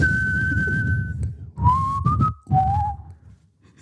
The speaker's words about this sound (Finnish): Niin, mä en kyllä osaa viheltää sun mukana tätä, mutta...